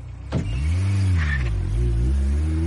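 A police car with officers aboard pulls away, its engine giving a loud, steady whining drone that rises and dips in pitch as it moves off, with no voices.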